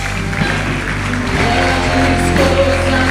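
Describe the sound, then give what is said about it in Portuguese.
An audience applauds God and the name of Jesus, a dense wash of many hands clapping loudly and continuously, with sustained musical tones droning underneath throughout. “Vamos aplaudir nosso Deus. Oh. Nós aplaudimos o teu nome, Jesus.”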